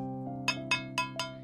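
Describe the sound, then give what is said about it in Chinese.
Four light metallic taps on a tin can, a signal calling stray cats to come and eat, evenly spaced at a steady rhythm, each a bright ringing clink over a low steady hum. “为什么要敲罐头？”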